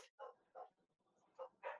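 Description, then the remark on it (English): A pet dog barks four times in short, sharp bursts: two close together, a brief pause, then two more. The barks sound moderately loud, with no talking. “My dog's decided to bark.”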